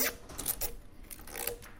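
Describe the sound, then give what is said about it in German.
Quiet handling noises: a few crisp snips and scratchy crinkles as audio tape is cut and its two ends are stuck together with a narrow adhesive tape, arriving in short irregular bursts with no one speaking. “Stellt man es genau ein, schneidet es wieder ab und dann klebt man die zwei Enden wirklich so wie mit so, einem, so einer Art Tesafilm”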